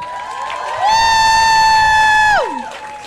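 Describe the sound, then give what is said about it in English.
An audience cheers for Michelle Wolf, and a single loud, sustained high-pitched whoop rises over the crowd noise for about a second and a half before sliding down and fading. “Give it up for Michelle Wolf, everybody.”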